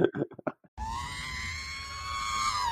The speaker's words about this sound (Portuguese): Já bota aí já o som do R2D2 é gritando, o... tipo assim.